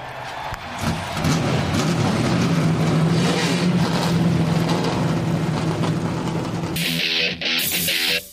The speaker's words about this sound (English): Gentlemen, start your engines!